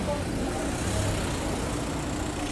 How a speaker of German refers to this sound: Schon so furchtbar laut hier. Warum? Was auch hier wieder läuft, sind Autos.